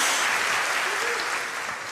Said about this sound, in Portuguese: Pode dar glória a Deus agora, pode dar salva de palmas ao Senhor agora.